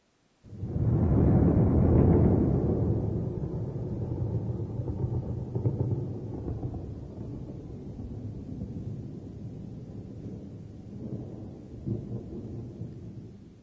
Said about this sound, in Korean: 천둥 소리네요. 네, 천둥 소리를 일본어로 표현하면 이렇습니다. 고로고로.